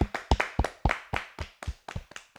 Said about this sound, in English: Clap it up for Ryan.